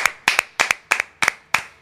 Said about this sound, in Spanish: Un aplauso